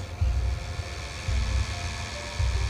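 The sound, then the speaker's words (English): A small robot vacuum cleaner whirs steadily with a faint high motor whine, while low rumbling thumps repeat roughly once a second beneath it. No one speaks. “Oh, it's one of those little vacuum bots.”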